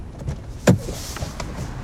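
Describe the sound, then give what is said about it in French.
François Pupponi getting out of a car before walking to a church: one short, solid mechanical clunk like a car door, over a low steady rumble, with no talking. “En sortant de la voiture, François Pupponi se dirige vers l'église où une messe est célébrée ce matin-là.”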